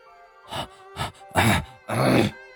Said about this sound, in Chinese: 但是听这家伙喘气如牛，我只好拉着他赶快走开。